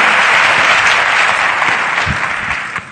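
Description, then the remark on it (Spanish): Sustained applause from a crowd for tennis players Gonzalo Granollers and Pablo Carreño, a dense wash of many hands clapping at steady loudness that tapers slightly toward the end, with no voices on top. “Eh, vale, pues un aplauso para Gonzalo Granollers y Pablo Carreño.”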